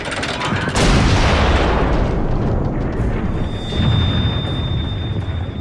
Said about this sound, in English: This ultimatum having been rejected, Austria Hungary declares war on Serbia. July 28, 1914, the Austrian artillery's Skoda cannons enter into action against Belgrade.